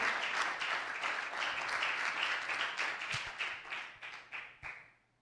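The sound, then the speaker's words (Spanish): A church audience applauds the Lord together, a dense wash of many hands clapping at steady volume before it thins into scattered, separate claps and fades out. “applause to the Lord.”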